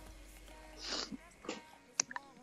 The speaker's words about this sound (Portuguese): Eu estava mastigando umas delícias que eu recebi aqui, que eu já sei que tu recebeu aí, né,